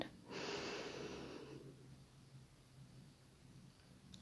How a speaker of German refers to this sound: Also wenn ihr ganz tief in den Bauch atmet, haltet mal den, die Hand auf den Unterbauch, atmet ein